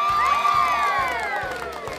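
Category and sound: crowd, applause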